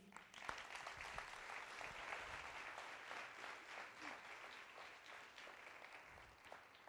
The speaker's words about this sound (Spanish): ¿Por qué no le damos un aplauso al Señor?